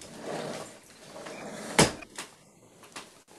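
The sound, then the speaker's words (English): A door bumps open and swings shut as a cat passes in and out, with a sharp knock near the middle and a few softer clunks and creaks after, with no one speaking. “See, if th- if this door was self, then the cat's been in and out of self quite a lot, in and out.”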